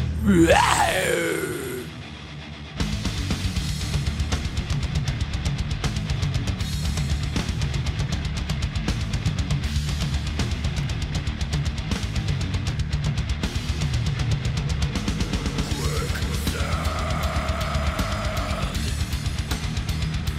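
Loud, dense death metal with rapid pounding drums and heavy distorted guitars, opening with a drawn-out guttural howl, and deep growled vocals running throughout, relentless for the full length.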